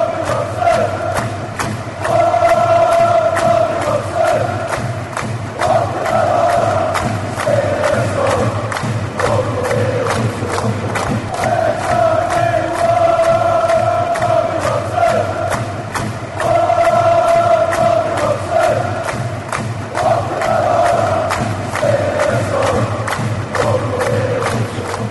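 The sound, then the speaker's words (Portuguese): A large football stadium crowd chants in unison, a repeating sung phrase rising and falling in waves, over a steady, loud roar of cheering that never lets up. “Foi só pra dar um clima de estádio aqui.”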